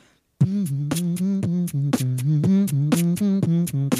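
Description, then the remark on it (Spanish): A single voice beatboxes a song, humming a steady, low melodic line punctuated by sharp, regular percussive bursts about twice a second, loud, with no talking. “Obvio, la próxima vez que vos estés acá, mae, yo voy a hacer el fucking beatbox”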